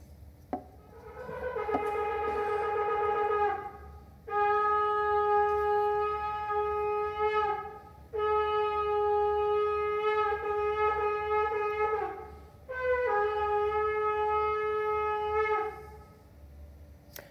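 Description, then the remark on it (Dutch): A shofar, a ram's horn, in Israel sounds four long, sustained blasts in a row, each a bright, brassy horn tone lasting several seconds, with brief pauses between them and no voices. “Kijk, dat klinkt al veel mooier. Elke shuar heeft zijn eigen klank.”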